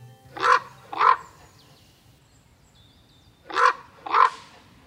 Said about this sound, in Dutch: op de Veluwe bij het Gelderse buurtschap 3 om te luisteren naar zijn verhaal achter het geluid van de raaf.